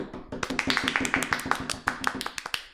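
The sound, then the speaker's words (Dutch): Rapid, uneven tapping of hands on a tabletop, about a dozen fairly loud knocks in quick succession, used like applause, with no talking over it. “Dat was een heel raar applaus wat je deed. Ja, dat was tafel.”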